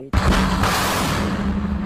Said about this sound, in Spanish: Todas estas explosiones constantes son insoportables. El bombardeo no para nunca por la noche y estoy aterrada.